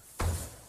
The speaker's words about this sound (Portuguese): Eu penso que é, é alguém a atirar-se para um puff, um sofá. Alguém a atirar-se para um puff ou para um sofá? Sim.